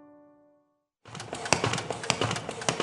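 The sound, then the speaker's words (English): A paper folding machine preparing hundreds of short biblical resources to send to prisoners around the country runs with a steady, dense mechanical whir and regular clacking beats, fairly loud, following a brief fading musical tone at the start. “That's our folding machine preparing hundreds of our short biblical resources to send to prisoners around the country.”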